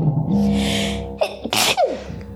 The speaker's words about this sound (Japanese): はあ、失礼しました。いや、あ、もう一回そうだな、くしゃみ。